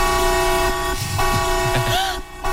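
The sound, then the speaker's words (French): A harsh alarm clock ringtone blares loud and steady, a continuous buzzy tone packed with overtones that holds for the whole stretch, with a few faint clatters underneath. “Il y a ne surtout pas euh, repousser son alarme de radio réveil et puis surtout euh, bien être vigilant sur euh, son alarme, bien sûr, ça c'est très important.”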